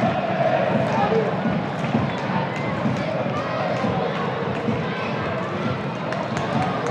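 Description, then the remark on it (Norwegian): A modest football match crowd at Sparebanken Sør Arena murmurs steadily throughout, a continuous wash of chatter and scattered voices with no big cheers, sounding thin and sparse rather than roaring. “Ja, hører det er liv på eh, Sparebanken Sør Arena. Det er ikke all verdens, men det er litt.”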